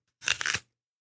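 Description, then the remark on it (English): A single crunchy bite into an apple: a short, crisp burst of crackling lasting about half a second, fairly loud, with no talking. “So, obviously, that's the sound of an apple.”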